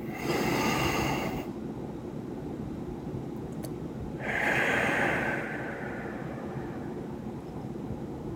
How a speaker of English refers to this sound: So let's do that together. All right. Okay. Are we ready? On the count three. One, two, three. We're going to breathe in.